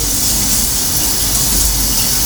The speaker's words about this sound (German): So, ich werde mich jetzt waschen. Hier ist also schön Wassergeräusche.